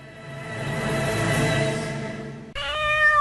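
A cat meows loudly: one long, drawn-out yowl, then a brief break before a second bright, strained meow begins. No one speaks.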